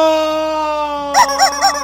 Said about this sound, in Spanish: El pollo está llorando.